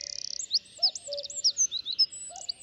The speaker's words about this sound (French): Un minuscule oiseau, le troglodyte mignon, perché sur un rameau, chante aussi.